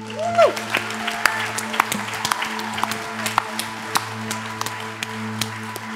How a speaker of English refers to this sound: Come on, somebody. Round of applause.